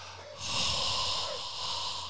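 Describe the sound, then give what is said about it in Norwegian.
A long, slow, warm breath pushed out right up against the microphone, showing breathing into a referee's face, a soft airy rush that swells in after a brief moment and holds steadily to the end, with no talking. “hvis du steller deg rett foran dommeren og puster den i trynet det sånn varm pust, hvis du skjønner.”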